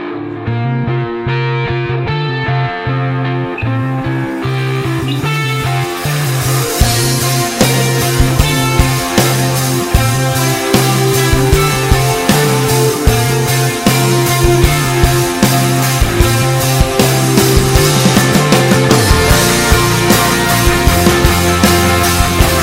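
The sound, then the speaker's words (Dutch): A recorded worship song plays loudly and steadily for listeners to sing along with, opening with a softer, mellow band intro before drums, cymbals and distorted guitars swell into a full, driving arrangement. “We gaan naar het lied luisteren. En ik zou zeggen, zing het uit volle borst mee.”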